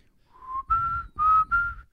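A person whistles a short, clear melody up close, in two breathy phrases with sliding pitch changes and a brief pause between them, over a low rumbling background.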